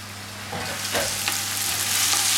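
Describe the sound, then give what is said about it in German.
Vegetables sizzle steadily as they are sautéed in a hot pot, a continuous hiss with scattered crackles and pops, growing slightly louder, over a faint low hum, with no one speaking. “Und so bei Gemüse, wenn ich das andünste, dann habe ich immer ein bisschen, das wird gedämpft, dann wird es gleich ein bisschen weich.”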